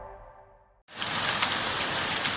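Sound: rain falling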